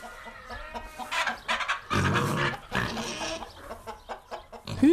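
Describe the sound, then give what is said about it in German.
Chickens cluck in a barn, a busy overlapping chorus of short clucks and squawks, fairly loud and continuous, with a brief louder burst near the end. “Hühner und Schweine haben nicht unbedingt etwas gemeinsam, außer ihr Leben auf dem Bauernhof vielleicht.”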